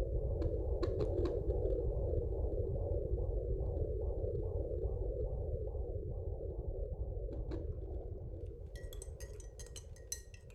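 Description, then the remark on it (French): A fetal heartbeat through a Doppler: a quick, steady whooshing pulse, about two beats a second, over a constant low rumble, with scratchy clicks and crackles at the start and end. “C'est un son médical, un son de maternité. On était si heureux de l'entendre qu'on a décidé d'acheter un Doppler fœtal pour pouvoir l'écouter tous les jours et surtout pour ne pas l'oublier.”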